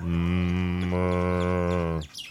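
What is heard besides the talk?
cow mooing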